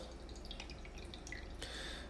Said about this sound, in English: Don't mind me. I'm pouring my coffee.